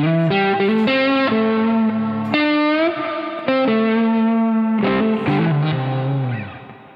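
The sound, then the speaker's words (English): An electric guitar plays a bluesy phrase through an overdrive pedal, with gritty, sustained notes and bends ringing out loud, no voices present. “And with the overdrive, it's starting to sound a lot more bluesy.”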